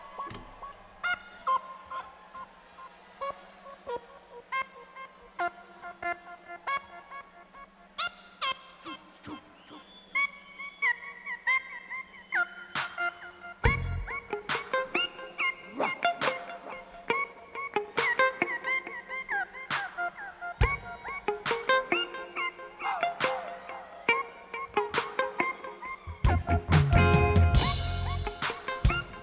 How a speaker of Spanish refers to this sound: Aquí es una versión grabada en directo que cuenta con la colaboración de una sección de tambores